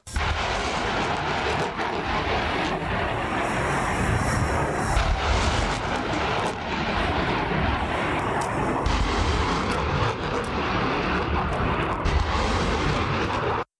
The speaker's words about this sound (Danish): HIMARS står for High Mobility Artillery Rocket System og er, groft sagt, en lastbil med en affyringsrampe til seks raketter bagpå. Og det lyder nogenlunde sådan her.